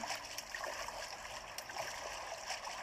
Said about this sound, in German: Ich gehe dann mal hier zu diesem Wasser und schwimme da durch und gehe zu diesem orange leuchtenden Ding da vorne.